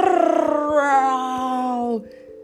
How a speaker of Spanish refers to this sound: Sus rugidos producían un fuerte eco en la cueva.